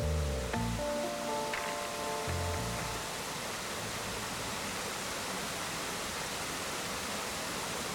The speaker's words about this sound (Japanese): 秋田湯沢水瀬川の急流が作り出したお安橋岩伝いの階段を降りていくとシューシューと湯気の音がしてくる98度の熱湯が冬の山に命の音を響かせる